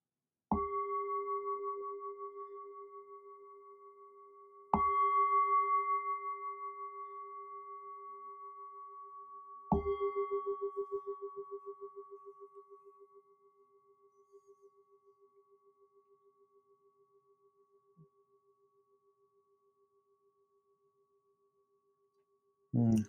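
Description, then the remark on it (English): A meditation bell is struck three times to begin Zen sitting practice, a few seconds apart, each strike blooming into a clear, pure tone that hangs in the air and fades very slowly into silence. “Let's do some sitting practice together, and I think I'll begin by ringing a bell.”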